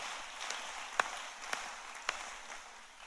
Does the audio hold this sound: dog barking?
no